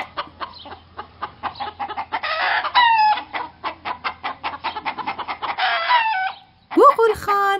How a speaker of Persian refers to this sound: روزی از روزها قوقول خان توی مزرعه قدم میزد. از قدقد مرغا حوصلش سر رفته بود با خودش گفت از قدقد مرغا کلافه شدم